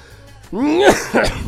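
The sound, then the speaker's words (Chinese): After a brief quiet moment, a strained, rising voiced throat sound breaks into two rough, raspy coughs, fairly loud and close together, from a person whose throat can't hold back the cough. “对，就是这，就是就一咳嗽上来就一咳嗽上来说话都说不清楚，就是压不住，压不住了，好吧？”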